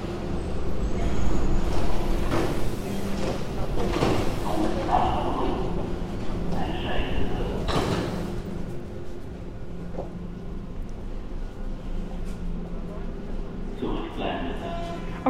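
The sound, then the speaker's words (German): A subway train pulls in with a loud rumble and screech, sharp hissing bursts of brakes and doors sliding open partway through, then a steadier idling hum with faint voices around. “Ja, sie kommt, sie kommt. Okay. Ich muss vielleicht in der U-Bahn weiter erzählen”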